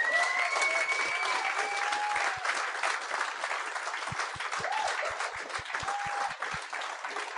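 Sustained audience applause fills the whole stretch, a dense steady roar of many clapping hands with scattered whoops and cheers rising above it.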